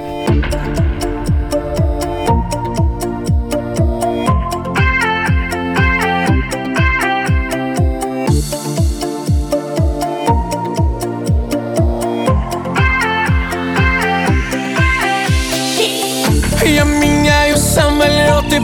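An instrumental pop intro plays loud and full on the Radio Komsomolskaya Pravda station, with a steady driving beat, layered synths and bass, and rising sweeps near the end, no vocals yet.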